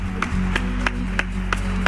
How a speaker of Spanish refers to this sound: otro aplauso, por favor, claro que sí.